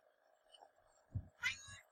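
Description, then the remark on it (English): A cat named Jack lets out a short, fairly loud meow, preceded by a couple of low thumps, over a faint steady background hum. “So Jack doesn't like the chips either.”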